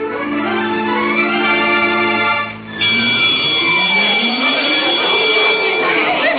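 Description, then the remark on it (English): A ship's lifeboat drill alarm sounds at 11:30 at night, blaring as a loud, steady buzzing tone rich in harmonics, cutting out briefly midway, then resuming with a shrill high whine over shifting, sweeping noise. “Oh, it's ridiculous waking us up at 11.30 for a lifeboat drill.”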